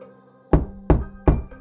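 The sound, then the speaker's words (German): Three sharp, heavy knocks on a solid surface, evenly spaced about a third of a second apart, loud, with a faint low hum underneath and no voices. “Das Klopfen kam so plötzlich und überraschend, wie es auch in der ersten Nacht kam.”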